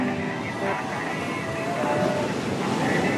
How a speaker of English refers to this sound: To the sound of the waves of the Gulf of Guinea, we begin our journey in the Black El Dorado.